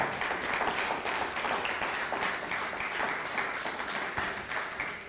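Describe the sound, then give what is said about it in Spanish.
A crowd applauds the Chilean community steadily, a dense wash of many hands clapping at once, sustained and fairly loud for several seconds with no talking over it. “Un fuerte aplauso a la comunidad chilena.”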